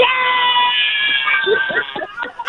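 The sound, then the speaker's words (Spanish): A woman's voice imitates a cat, drawing out one long, high, wavering meow before trailing off into short, choppy vocal bursts. It is fairly loud. “pero sí, pero sí, pero sí habla como, pero sí habla como una gata, ¿eh?”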